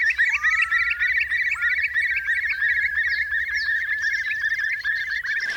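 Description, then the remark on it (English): Curlew calls, with rising whistled notes over a dense, steady chorus of rapid chattering and trilling calls that continues throughout without pause. No one speaks. “And I remember I love watching curlews out on the middle of mud flats because that in that liminal space between land mm.”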